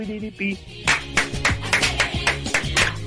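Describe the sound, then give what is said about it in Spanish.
A short burst of steady, rhythmic clapping, roughly eight or nine crisp claps in even succession, with a faint tonal hum or voice lingering underneath. “Aplausos y solamente aplausos.”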